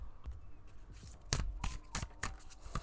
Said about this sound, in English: Um, I have my affirmation deck right in front of me. I'm going to shuffle it, pull a card or two to see kind of the energy um, and what people need to hear right now. So, let's shuffle that.